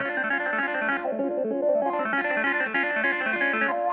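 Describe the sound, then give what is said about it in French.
A funky clavinet played through a wah pedal, its bright, rhythmic chords sweeping from nasal and dark to sharp and open, loud and continuous with no voices. “Sur cette partie, … utilise un clavinet avec une pédale wah”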